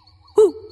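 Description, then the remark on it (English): A single owl hoot rings out clearly in a dark forest, a short rounded call that tails off into a softer lingering tone, heard alone over a faint low background hum. “Then Thomas heard an owl hooting.”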